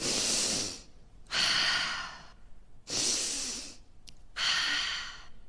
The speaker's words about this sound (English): We're going to stand up and we're going to put one hand on our heart and one hand on our belly, and we're going to breathe. We're going to breathe the air around us. Okay, ready?